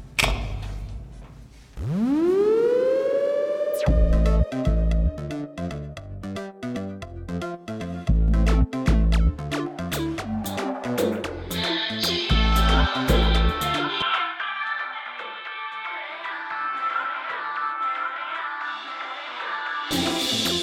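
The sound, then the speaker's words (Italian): An electronic music track opens with a rising synth sweep, then a loud pounding bass beat with layered synths, before the beat drops out and bright, shimmering synth chords carry on alone. “facciamo ascoltare il brano?”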